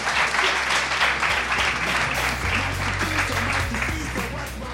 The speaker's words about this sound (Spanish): Fuerte aplauso, fuerte aplauso, por favor, vamos.